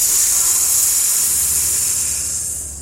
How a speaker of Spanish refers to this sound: por encima de ella, Sumac escuchó un silbido estruendoso